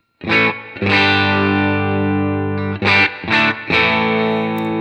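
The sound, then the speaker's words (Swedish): Distorted electric guitar through a Universal Audio Dream amp-emulator pedal: a long ringing chord sustains, then a few quick rhythmic chord stabs follow, thick with harmonics and loud, with no talking. “En Dream från Universal, Universal Audio.”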